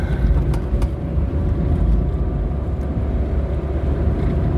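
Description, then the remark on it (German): Steady low rumble of a car in motion heard from inside the cabin, a constant road and engine drone with faint tonal hum, filling the whole clip without any talking. “Dann können Leute, die Fahrgeräusche beim Podcast nicht äh, mögen, diese, diese Episode direkt auslassen.”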